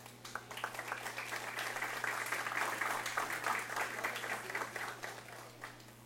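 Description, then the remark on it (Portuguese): An audience bursts into sustained applause to the Lord during a sermon, many hands clapping in a dense, steady patter that swells slightly in the middle, with a low constant hum underneath and faint voices mixed in. “Quem entendeu, dá um aplauso ao Senhor.”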